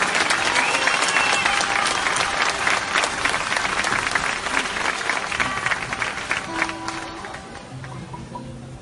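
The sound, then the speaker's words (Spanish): Loud, sustained audience applause with dense clapping throughout, easing slightly toward the end as a few voices and cheers come through beneath it. “Un aplauso fuerte, de verdad.”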